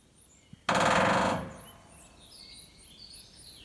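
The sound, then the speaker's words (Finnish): A woodpecker delivers one fast, loud drum roll of about three-quarters of a second on a ringing, resonant surface. Faint birdsong chirps continue in the background afterward. “kyllä tämä tikka hei oikeasti tietää, että nyt ollaan jonkun aivan erikoisen asian äärellä. Kyllä, kyllä. Et nyt, on, nyt on sellainen rumpu, että ei ole kyllä ennen ollutkaan.”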